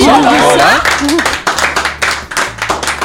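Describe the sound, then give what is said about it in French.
A group applauds, with dense, steady clapping that continues for about three seconds. A brief wavering vocal sound rises over the claps at the start. “On peut ah applaudir.”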